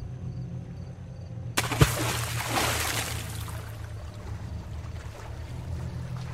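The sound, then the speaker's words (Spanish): Water splashes and churns in a sudden burst as someone swims in a river after midnight, following a low steady hum; the broad splashing fades into a softer continuous wash of moving water. “Miré mi reloj y me di cuenta que ya pasaba de la medianoche, lo que hizo que me preguntara quién podría estar nadando del río a esas horas.”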